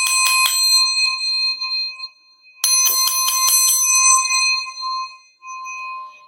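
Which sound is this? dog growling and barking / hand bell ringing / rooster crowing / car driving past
hand bell ringing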